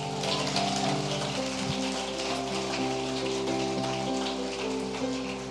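audience applauding

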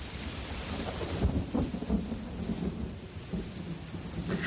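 thunder rumbling

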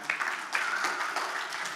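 audience applause

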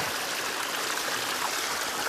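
water flowing

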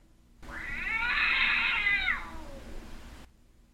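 cat meowing and yowling

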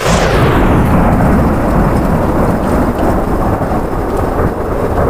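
distant thunder rumbling

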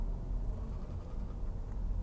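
bus passing by

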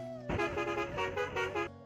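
bus horn honking

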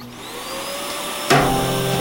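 vacuum cleaner running

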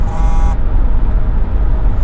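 car driving

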